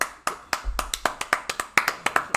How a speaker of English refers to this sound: Round of applause.